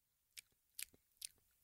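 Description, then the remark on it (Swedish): A person imitates the sleepy lip smacking of someone asleep, as done while pretending to sleep: three soft, wet mouth clicks spaced roughly evenly, each followed by a fainter smack, with nobody talking. “För det gjorde min syster när hon sov, att hon smaskade lite.”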